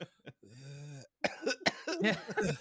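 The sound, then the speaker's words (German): A person vocally imitates a snail with a smoker's cough: a couple of short hacks, a long strained wheezy tone, then a burst of rough, gurgling coughs, with no other sounds. “dass Schnecken husten können, finde ich gerade auch sehr ja. ja. Ich stelle mir das gerade vor, so.”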